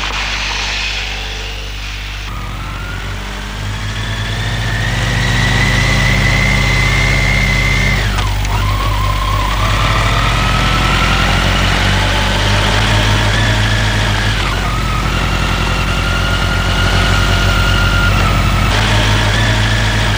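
scooter engine idling

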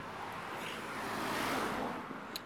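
street traffic

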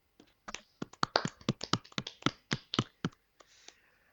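small group applauding

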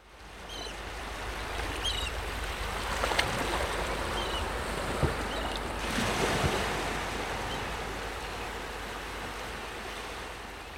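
sea waves and wind

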